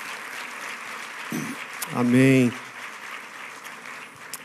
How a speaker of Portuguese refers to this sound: Você pode dar uma salva de palmas para ele? Glória a Jesus.